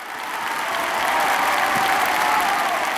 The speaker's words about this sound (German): Denn auch heute erwacht Romeo und genießt gemeinsam mit Julia den Applaus, der noch nie so laut und lang war wie an diesem Abend.